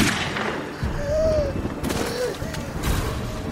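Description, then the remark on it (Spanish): A sharp pistol gunshot, striking a person in the head, cracks out amid a rumbling, noisy background, followed by another fainter burst a moment later; no one speaks. “El balazo le entró directamente al cráneo, desplomándose sin vida.”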